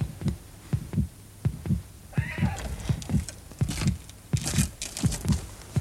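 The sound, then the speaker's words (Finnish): A steady heartbeat pounds out low double thumps, lub-dub, roughly nine beats at a brisk even pace, with a faint hiss and some breathy rustling rising over it toward the end. “Mutta jospa hän kuulee sydämeni lyönnin.”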